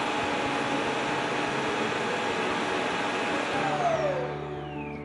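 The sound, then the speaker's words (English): A robot vacuum that has docked itself empties and cleans itself at its dock: a loud, steady whooshing motor roar with a humming whine, then the pitch slides downward and the noise eases off near the end. No one speaks. “That's it has docked itself and now it's cleaning itself.”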